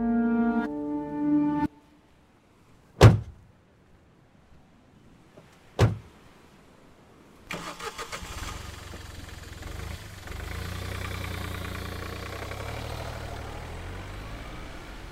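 Two solid car door thumps a few seconds apart in a quiet space, followed by an engine turning over and settling into a steady, rumbling idle.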